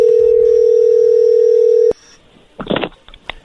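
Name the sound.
telephone dial tone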